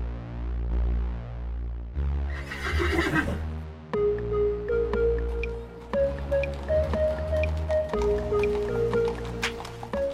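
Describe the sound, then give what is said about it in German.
A pony in an underground parking garage gives one loud, shrill neigh early on, fading after a second or so, followed by steady tonal notes that sound like a short tune. No one speaks. “Ponys in der Tiefgarage.”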